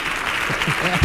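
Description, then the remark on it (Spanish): Steady applause from a crowd for two performers about to sing, a dense crackling wash of clapping at an even loudness, with some voices mixed in underneath and a slight swell at the very end. “El aplauso para estos dos bicharracos siderales.”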